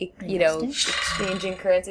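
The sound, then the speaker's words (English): A phone's message notification tone with a bleating, animal-like quality sounds briefly and fairly loudly while a man keeps talking over it. “quite a cool uh, message tone”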